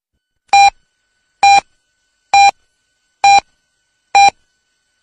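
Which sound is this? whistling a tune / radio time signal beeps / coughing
radio time signal beeps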